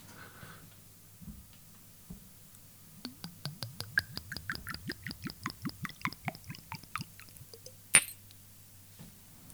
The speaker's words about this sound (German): Schenke ich dir mal ein.